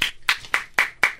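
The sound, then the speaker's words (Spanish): A few quick, evenly spaced hand claps, about six in a steady rhythm, sharp, with no talking over them. “Sí, porque el artista vivimos del aplauso, señores.”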